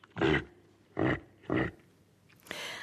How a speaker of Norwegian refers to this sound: Ja, helt til slutt her hørte vi et eh, muligens litt stressa reinsdyr.